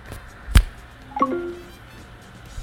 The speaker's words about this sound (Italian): Avete notato che Siri ha un suonino nuovo? Infatti l'ho fatto per quello, così abbiamo messo una cosa in più.